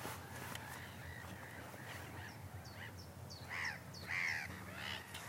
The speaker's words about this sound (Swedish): Nu ser vi en kensk tärna här flyga bort mot eh, hamnsilon i Halmstad. Kenska tärnor är ju rejäla fåglar med ett fantastiskt vackert läte, eller vad säger du?